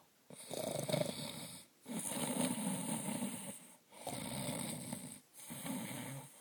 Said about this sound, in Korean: 거인은 천둥 같은 소리를 내며 코를 골았어.